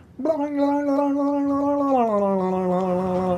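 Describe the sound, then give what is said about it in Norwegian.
A single voice imitates a railway crossing bell heard while driving past it, as a steady sung tone that abruptly slides lower partway through, mimicking the Doppler pitch drop of passing by. “Uh, har, har, du kjørt forbi en jernbaneovergang med en sånn uh, bjelle, mm.”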